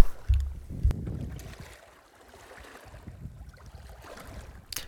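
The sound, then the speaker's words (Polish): Outdoor seaside ambience on the Polish coast: wind buffets the microphone in low, rumbling gusts, strongest at the start, over a steady wash of water and waves. Nobody speaks. “Niedawno byłem nad naszym polskim morzem, które uwielbiam i które bardzo mocno polecam. Można stamtąd przywieźć różne dźwięki, różne rozmyślania i można się zarówno jednym, jak i drugim dzielić.”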